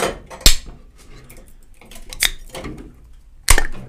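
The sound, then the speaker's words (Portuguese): A Monster mango energy drink can being opened close to the microphone: three sharp metallic clicks and cracks spaced over a few seconds, each followed by a short, faint fizzing hiss, with no talking. “Vou abrir aqui, ó. Perto do microfone pra fazer aquele barulhinho pra quem tá escutando.”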